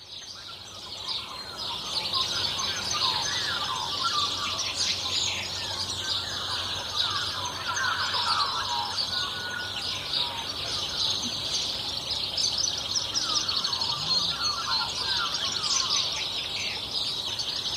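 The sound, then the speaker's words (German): A dense New Zealand morning dawn chorus of many birds singing at once, overlapping chirps, trills and whistles forming a steady, busy wall of birdsong at moderate loudness with no talking. “zu den Klängen des neuseeländischen Dawn Chorus, also dem Vogelgezwitscher am Morgen aufzuwachen”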